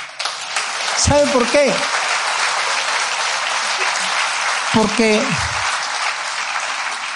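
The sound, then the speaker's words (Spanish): An audience applauds the Lord steadily throughout, a dense wash of clapping from many hands, while a man speaks briefly over it twice. “Yo le daría un fuerte aplauso al Señor ahí.”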